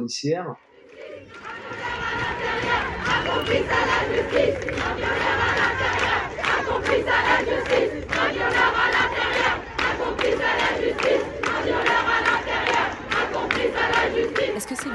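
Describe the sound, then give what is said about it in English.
A large protest crowd on the streets in July 2020, at an assembly against sexual, racial, gender, state and police violence, chants together in a steady, rhythmic cadence, loud and dense, with many voices shouting in unison and continuous crowd noise filling the background. “Is this the sound of backlash? Or the sound of revolution?”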